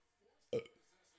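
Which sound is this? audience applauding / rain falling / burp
burp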